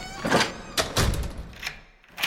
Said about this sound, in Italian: il vecchio portinaio di Brera, che fa il suo solito giro di ronda per chiudere le porte del palazzo. È una sorta di rituale quotidiano.